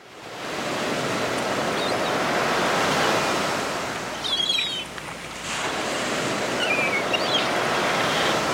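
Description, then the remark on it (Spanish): Red water washes steadily onto the sandy shore of the Japanese coast in a continuous, rushing swell that briefly ebbs midway, with a few faint high chirps above the surf and no voices. “El vaivén del agua roja acaricia la arena de la costa japonesa.”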